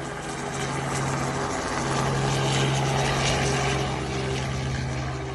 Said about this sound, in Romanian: Și ăsta este chiar sunetul pe care noi l-am înregistrat de la um, elicopterul în cauză.